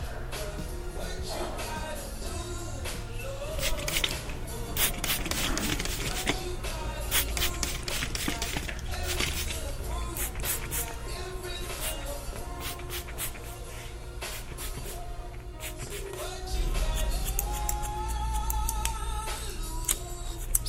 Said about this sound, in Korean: 사정없이 싹둑싹둑 잘려나가는 머리칼들을 보자니 그간 머릿속에 있던 상념과 고민들이 함께 잘려나가는 듯했다.